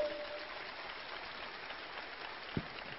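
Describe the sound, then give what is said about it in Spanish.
An audience at a business event applauds itself for being there, steadily throughout, a dense crackling wash of many hands clapping at an even level, with a single louder thump near the end and no voices. “Así que date un aplauso de nuevo por estar aquí.”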